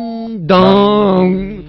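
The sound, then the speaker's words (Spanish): A voice imitates a two-note ding-dong bell-type doorbell chime: a held higher tone steps down to a louder, lower sustained tone that fades out, alone. “Mi padre era muy, muy solemne, hombre de banco, era de timbre de campanil. Ding dong.”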